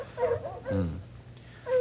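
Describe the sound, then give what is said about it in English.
A cold-trailing bloodhound, one of two named Maud and Sneaker, whimpers in three short, wavering whines, one lower and fuller in the middle, as the dogs fail to hold a scent over cold, mountainous, rocky terrain; faint background hum, no talking. “And these two here, old Maud and Sneaker, the best cold trailing bloodhounds in the business.”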